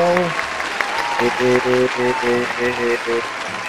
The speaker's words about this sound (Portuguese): Estamos começando aqui a primeira edição do podcast Sensual. Aplausos, galera. Primeira edição.